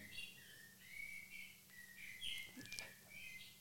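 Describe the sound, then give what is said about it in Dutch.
A bird clock chimes one o'clock with a recorded blackbird song: a string of fluty, warbling whistled phrases, fairly soft and steady, with no talking and a faint low hum underneath. “Dat is een mooie een klok. merel om één uur.”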